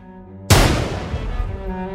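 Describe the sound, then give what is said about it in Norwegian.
A single sudden, loud nitroglycerin explosion bursts in after a quiet moment, then trails off into a long, rumbling decay. Faint sustained tones hum underneath throughout. “En nyvinning innen eksplosjonsteknikk nitroglyserin.”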